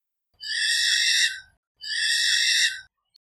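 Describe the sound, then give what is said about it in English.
Two loud, drawn-out calls from a little owl, each about a second long and harsh, with a brief pause between them and no other sounds. “They're a loud bird, and they can often be heard with their quack.”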